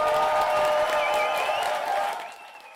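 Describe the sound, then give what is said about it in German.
A crowd of over 100 spectators filling the hall applauds and cheers loudly at a poetry slam in the Alter Schlachthof in Lingen, with a dense wash of clapping and a few whoops and whistles rising above it, before the noise begins to fade at the end. “So bombastisch war die Stimmung letzten Donnerstag beim Poetry Slam im Alten Schlachthof.”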